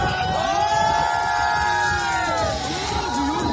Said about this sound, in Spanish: Y todo mientras eran vitoreados, como escuchamos, por un grupo de personas que estaban asistiendo al espectáculo en el puerto de Barbate.